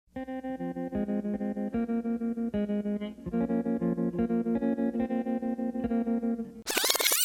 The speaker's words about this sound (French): c'est la version de … qu'on vient d'entendre qui fait office de VO